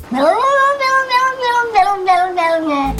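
A single long, loud cat meow, rising sharply at the start and then held as a wavering, drawn-out yowl for a few seconds, close and clear with no voices.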